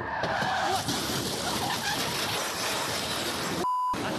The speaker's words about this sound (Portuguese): Me deparei com o um carro na minha frente em altíssima velocidade e logo já saí correndo, levantei o celular e ele bateu nessa mureta atrás de mim. O carro foi partido ao meio e parte da lataria ficou retorcida na estrutura da passarela.